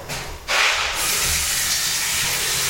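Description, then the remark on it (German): An electric toothbrush with toothpaste on it gives off a steady, harsh hissing whir, surging louder after a brief half-second lead-in and then running on evenly with no voices. “So, jetzt höre ich wieder das unangenehme Geräusch der Zahnbürste.”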